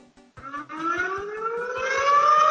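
An air raid siren winds up from a low groan into a loud, steadily rising wail, with a regular low thumping pulse running beneath it throughout.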